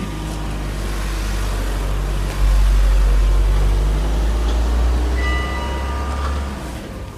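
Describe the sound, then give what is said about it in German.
A car passes by with a deep, steady rumble of engine and tyres that swells suddenly, holds for several seconds, then eases off near the end. No one speaks. “Jetzt kommt gerade ein Auto.”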